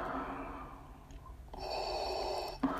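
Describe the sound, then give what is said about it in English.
Heavy, raspy breathing of a figure in a fan film trailer: a long inhale followed by a hissing exhale, each breath loud and airy against a dark, quiet background, with no speech. “And then off it goes, being pulled into the air, followed by this guy's heavy breathing.”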